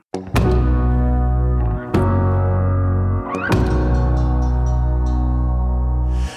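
A song from a new album opens with loud, heavy band chords struck about three times, each ringing out over a deep, droning bass, with no singing yet.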